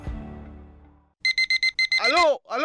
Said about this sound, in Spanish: Mi amor, es el despertador.